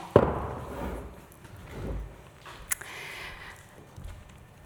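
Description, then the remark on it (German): A sharp wooden knock near the start, followed by a softer bump and a brief clack as two chairs are set down on a stage floor, with no talking. “ich habe gerade zwei Stühle hier auf der Bühne platziert.”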